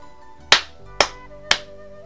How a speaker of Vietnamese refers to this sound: một tràng vỗ tay vang lên